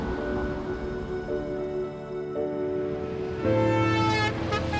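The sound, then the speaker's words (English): A Chevy's engine hums steadily over a wash of road noise, then grows louder and rougher near the end as the car draws up and pulls off onto the road shoulder. No one speaks. “Five minutes later, a Chevy pulls off to the shoulder.”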